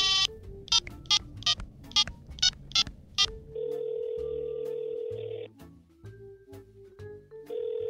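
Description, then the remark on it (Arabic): A quick run of about eight dialing beeps, then a steady, buzzing ringback tone of an outgoing phone call that pauses briefly and starts again, with no voices. “تعالي نخبره نحاكي شوف شو وضعه”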